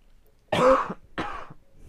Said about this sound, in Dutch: Lang leven het hoesten.